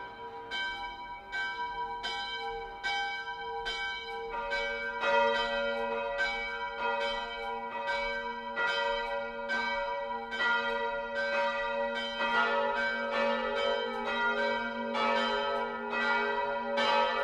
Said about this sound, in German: Glocken sollen zudem den Feind im Vorfeld kriegerischer Überfälle aus der Ferne abschrecken.